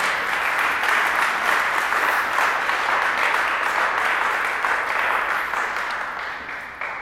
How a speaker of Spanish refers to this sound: Una vez más, dale una ofrenda de palmas al Señor.